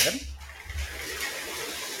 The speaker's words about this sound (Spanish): 15 de septiembre está diluviando, señoras y señores. Eh, sí. Y tengo la ventana, o sea, totalmente llena de agua, no veo nada.